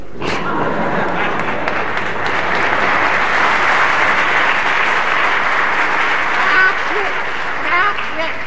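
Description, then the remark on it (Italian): Sustained audience applause, a dense steady clatter of many hands clapping that holds at an even loudness for the full stretch, with faint voices mixed in. “No, non applaudono me, applaudono me.”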